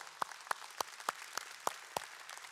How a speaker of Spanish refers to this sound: Y claro, eso merece un aplauso.